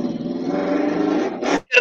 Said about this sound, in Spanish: No, es la, misma moto que viene de vuelta.